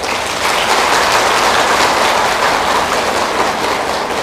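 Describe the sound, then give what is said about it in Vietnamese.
An audience of Buddhist followers applauds steadily, a dense, even roar of many hands clapping at once that holds loud and unbroken throughout, with no voices rising above it. “và tràn vỗ tay của các quý phật tử đó thể hiện cái tính cam kết”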